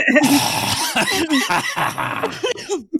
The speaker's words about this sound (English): Here we have everyone. One, two, three, clear your throat. Everybody.